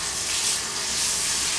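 A steady rush of tap water pouring into a bath for a small child's bath time, a continuous bright hiss with no pauses and no voices.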